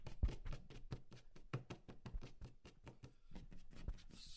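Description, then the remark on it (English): Rapid, rough scratching taps repeat in a steady rhythm for several seconds, fairly loud, like nails raking across wood, made by someone imitating a dog scratching at a door rather than an actual animal. “And this thing's scratching at the door, scratching and scratching, you know. Except it's a lot louder. It's like it's like nails on wood.”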